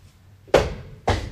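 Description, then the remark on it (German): A door being opened backstage at the Zentraltheater: two solid clunks about half a second apart, each a sharp knock that fades into a brief ringing tail, with no voices. “Wenn ich hier, man hört, man hört es ja vielleicht, wenn ich jetzt aufmache, das war zu laut, wenn ich jetzt aufmache,”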